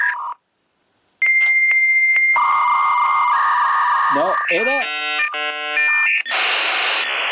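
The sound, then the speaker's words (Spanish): A dial-up modem connecting over the telephone line: a steady dial tone, then warbling chirps, rapid beeping tones and a harsh hissing screech, loud, after a brief spoken word at the start. “A la conexión a telefónica del modem.”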